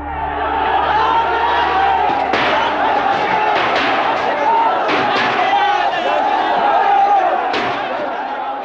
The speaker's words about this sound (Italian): I telegiornali dell'epoca riprendono un fiume di uomini che prende d'assalto la moschea gridando Jai Shri Ram, cioè Viva Ram nostro Signore, e Mandir Vahimbaneng, costruiremo il tempio proprio lì. L'esaltazione è totale.